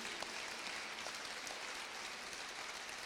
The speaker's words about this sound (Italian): Io ringrazio moltissimo il Museo Archeologico. Vorrei fare un applauso a chi,